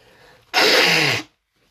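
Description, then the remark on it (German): A single loud sneeze bursts out sharply, a harsh breathy blast lasting under a second, followed by quiet. “Boah, ich muss wieder niesen.”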